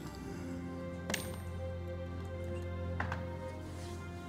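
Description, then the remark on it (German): Dice being rolled for a 'recognize motive' check in a role-playing game, heard as two brief, sharp clicks about two seconds apart, fairly quiet against a steady low electrical hum, with no voices. “Okay, dann würfel mal auf Motiv erkennen.”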